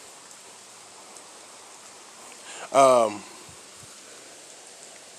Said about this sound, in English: I'm out here outside. It's raining.